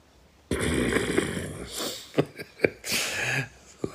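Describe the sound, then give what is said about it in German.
An 80-kilogram dog breathes heavily and raspily, a steady noisy panting broken by a few sharp snorting puffs toward the end. “Wenn ihr übrigens Geräusche hört, das ist von unserem 80 Kilo Hund hier, ähm, sehr gerade völlig durchdreht im Frühling.”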